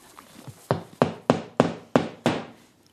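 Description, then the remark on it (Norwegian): Hammering nails to shut a window: six sharp, evenly spaced blows, each a solid wooden knock that rings briefly before the next strike, about twice per second, with no voices. “Lena tar ikke sjansen og spikrer igjen vinduet.”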